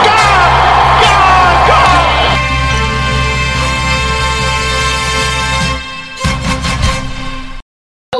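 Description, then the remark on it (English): A large cricket crowd roars with loud cheering and yelling as Settle takes a hat trick on his birthday, sustained and dense for several seconds, with whoops rising over the din before it fades and cuts off abruptly. “crowd cheers.”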